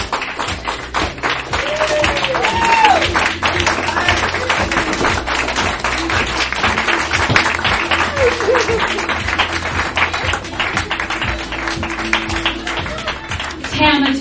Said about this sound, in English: Big round of applause. Oh, that was amazing.